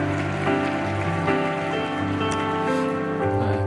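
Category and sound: crowd, audience applause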